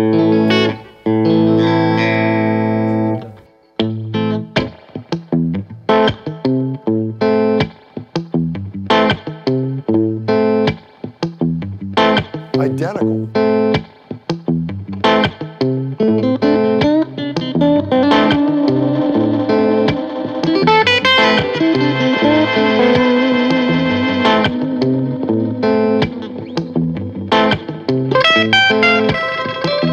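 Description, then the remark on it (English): A guitar played through a loop pedal, a repeating pattern of strummed chords and picked notes layered with effects and distortion, steady and fairly loud throughout with no talking. “It's like the same sound after you loop it.”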